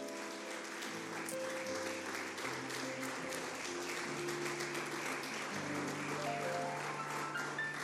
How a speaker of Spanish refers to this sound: ¿Cuántos le dan un aplauso a la palabra de Dios?